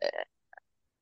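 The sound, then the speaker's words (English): A person lets out a brief, involuntary throaty croak in two quick rough pulses, followed by a faint little catch in the throat, with no words spoken. “sorry, I didn't mean to croak like that.”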